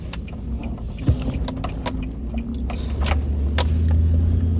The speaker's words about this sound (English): Uh, I left our house to go to the office, and I'm now pulling up in the office right now. That's without any traffic. It's like 5 a.m.